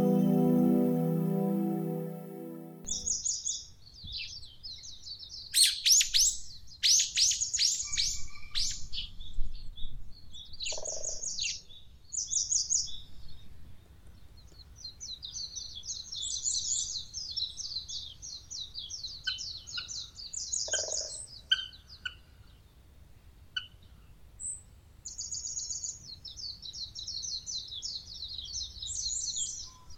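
bird, birds chirping

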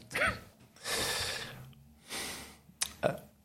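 human body sound, coughing fit

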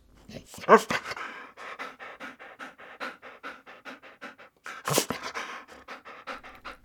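animal, dog panting

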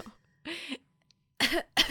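human body sound, cough

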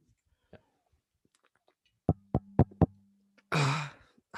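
impact, knocking on a microphone

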